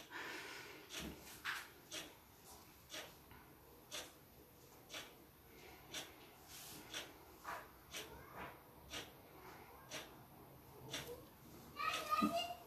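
A young boy shrieks and squeals outdoors in a run of short, sharp bursts repeating about once a second, ending in a louder, higher-pitched squeal.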